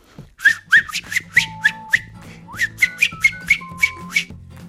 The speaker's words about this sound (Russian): Котенок Мик и бельчонок Фома шли по ней совсем недолго, как вдруг показался белый дом волка серого, и послышалось, как кто-то насвистывал знакомую песенку